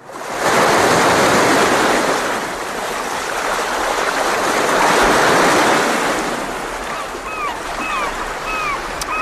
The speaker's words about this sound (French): Je vous ai mis quelques petites mouettes, je ah sais que ça vous fait plaisir.